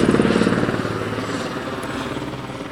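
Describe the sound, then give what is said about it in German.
A helicopter lands right beside the speakers at a landing pad just ahead, its rotor producing a loud, steady rhythmic thumping with a broad roar of engine and wind noise that stays dominant throughout. “Hier ist gerade ein Helikopter und der landet hier direkt neben uns. Deswegen ist das so ultra laut und ich entschuldige mich vielmals.”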